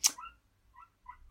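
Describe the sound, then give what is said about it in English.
A dog lets out one sharp bark, then a few short, high-pitched whines, heard faint with no one talking. “if anyone can hear that, that's my dog going nuts.”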